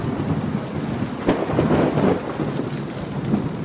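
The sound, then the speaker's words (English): A thunderstorm in Arizona with heavy, steady rain pounding roofs, hissing across the full range, a sharp crack of thunder near the middle followed by rolling rumble, loud, with no voices. “the sun cooks them, the wind pulls at them the rain pounds them.”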